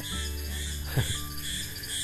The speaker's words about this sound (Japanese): まだセミ鳴いてます沖縄